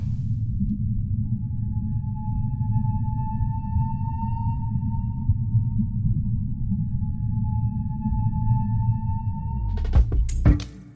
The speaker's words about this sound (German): Wissenschaftsredaktorin Sabrina Weiß erzählt die Geschichte einer Biologin, die in Alaska nun den Walen ungestört zuhören kann und mehr hört, als sie geahnt hat.